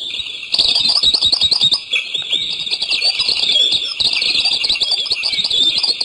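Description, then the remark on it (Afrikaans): A southern double-collared sunbird calls in a rapid, high-pitched stream of twittering chirps and buzzy trills, loud and continuous for several seconds with no one talking. “En dan die gewone rooibors suikerbekkie wat ons almal ken.”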